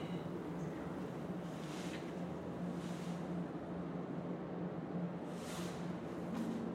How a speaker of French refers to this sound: il y a un bruit de fond grave, c'est quoi C'est la rivière qui coule, en fait.